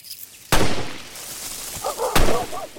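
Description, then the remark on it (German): Two loud gunshots, as wolves are cleared to be shot, ring out about a second and a half apart, each a sharp crack followed by a lingering, echoing tail over a quiet background. “Zum Abschuss freigegeben.”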